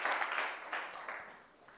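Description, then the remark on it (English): An audience in a church service claps together for the Lord as they take their seats, a dense wash of many hands applauding steadily, then gradually thinning and fading toward the end. No one speaks over it. “Why don't you clap your hands together for the Lord as you take your seats?”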